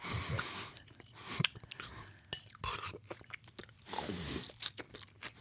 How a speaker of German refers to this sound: Salat kann man leise essen und du schnaufst da einen ab. Hm. Hm. Wie kann man so laut kauen? Du hast doch echte Zähne.